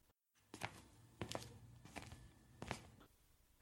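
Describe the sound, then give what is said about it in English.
Soft, quiet footsteps of Mr. Hanson creep toward the door at a slow, uneven pace as he tries to sneak out, about five muffled steps, with a low hum underneath and no talking. “Mr. Hanson is trying to sneak out the door.”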